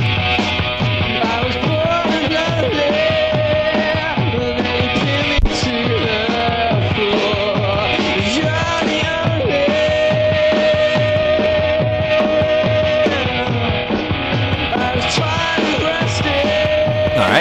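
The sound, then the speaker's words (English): A rock band plays a loud, dense demo recording from 1997: distorted guitars, pounding drums and bass drive steadily along with a sustained high melodic line. No one speaks over it. “Here's … It's a demo from 1997.”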